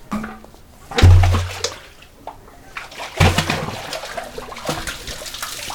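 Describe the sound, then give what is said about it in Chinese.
Water sloshes and splashes as a bucket on a rope is flipped and scooped from a live well at the Chengmei factory, with two heavy, low-pitched plunges about two seconds apart followed by dripping, trickling water. “那我从小就会瓢这个水，怎么现在的水要透过这个瓢啊，把它瓢出来，瓢起来啊，来，哎呦。”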